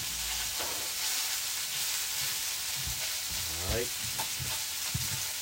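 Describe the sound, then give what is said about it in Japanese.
A steady, dense sizzle of food frying in a pan fills the whole recording, with brief snatches of a voice talking faintly underneath the crackle. “ジュージューうるさくてすいません”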